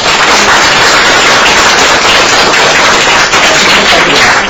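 An audience applauds steadily, the dense crackle of many hands clapping at once holding loud and even for several seconds with no voices over it.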